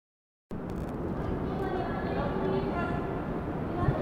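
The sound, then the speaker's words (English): Steady, dense New York City traffic rumble echoes under the Dumbo Archway in Brooklyn, a continuous low roar of passing vehicles with angry drivers and the M train right above, holding at an even level after a brief silent start, with indistinct voices of tourists taking photos. “Under the Dumbo Archway in Brooklyn, you can hear the familiar sounds of New York City angry drivers in traffic, tourists taking photos.”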